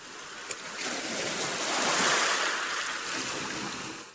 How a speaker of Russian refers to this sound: и вот этот дождь такой тебя укутывает, да, успокаивает.